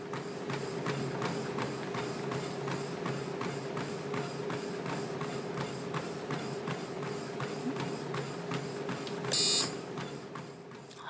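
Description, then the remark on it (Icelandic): A treadmill running with someone on it: a steady motor hum under a quick, even beat of footfalls, with a short burst of hissing noise near the end. No one speaks. “Þetta er hlaupabrætti færibann sem færir fætur”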